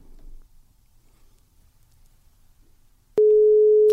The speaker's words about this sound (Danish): Og hende har vi, øh, hende har vi en telefonlinje til, så øhm, nu vil vi prøve at ringe hende op.